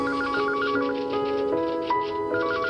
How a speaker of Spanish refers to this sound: Una mañana sonó el teléfono en la oficina de aquel joven de 35 años